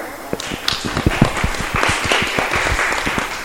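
An audience applauds a university teacher at a panel event in a theater, a dense patter of many hands clapping steadily for a few seconds at moderate volume, with no voices over it.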